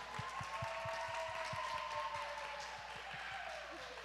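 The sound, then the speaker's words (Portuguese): An audience applauds in a dense, steady wash of clapping for about four seconds. Soft low thumps and a faint whistle-like tone run beneath, with no clear speech. “O som da plateia.”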